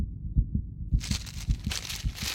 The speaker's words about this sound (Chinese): 小光以为阿嬷发现什么了，心砰砰砰砰的快跳出来。